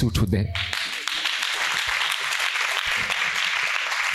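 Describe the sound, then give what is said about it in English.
An audience claps hands in a dense, continuous wash of applause, steady and fairly loud throughout, with a brief burst of low, rumbling sound at the very start. “Come on, clap your hands for”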